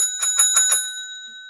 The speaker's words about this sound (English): Yes, the bell. Every time I come up with something, you're going to ring the bell, or you do.